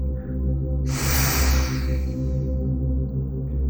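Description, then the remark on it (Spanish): A single slow, deep exhalation during a guided relaxation breathing exercise, breathy, rushing out strongly before gradually fading away over a steady, low humming musical drone. No one speaks. “De nuevo, tomamos aire. Uno, dos, tres. Soltamos lentamente.”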